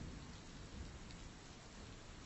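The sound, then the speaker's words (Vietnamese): Steady, dense rain pours without a break, with a low rumble of thunder rolling underneath; no voices are heard. “Rồi chạy về nhà cầm sang cái bạc Với bốn cái cọc đóng xuống bốn góc Để chắn mưa cho hai cái xác Còn đang nằm co quắp ở dưới cái chiếu kia”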